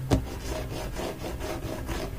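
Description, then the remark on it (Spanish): A cat scratches at a wooden door during the night in a steady series of raspy, rubbing strokes, opening with a sharper scrape. Moderately loud, with no voices. “Lo que me hizo levantarme fue que la escuché rasguñando una puerta.”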